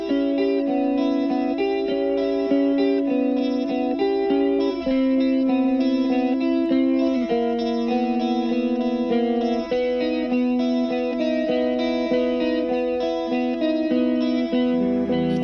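A 1981 Czechoslovak pop song plays steadily: sustained, harmonically rich chords with a warm, slightly distorted, chorused tone and a shifting melodic line, loud and continuous with no talking.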